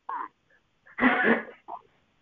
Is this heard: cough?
yes